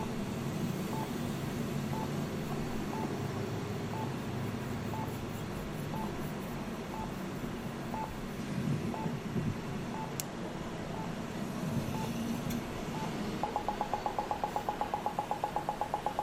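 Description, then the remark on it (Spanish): Slow, steady beeps from an accessible pedestrian crossing signal tick about once per second over a low rumble of traffic on the parallel road, then switch to a fast, rapid chirping pattern near the end, during which pedestrians may begin crossing. “ahí ya la que está la señal de cruce, la persona puede comenzar a cruzar mientras está el sonido.”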